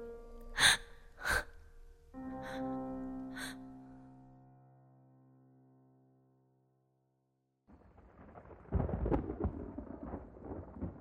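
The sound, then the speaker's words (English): Thunder rumbles in a low, rolling swell near the end, after a few sharp hits with ringing, fading tones and a short silence. No one speaks. “Thunder rumbled high above the trees as Mirilia remembered the wraith's words and knew what she had to do.”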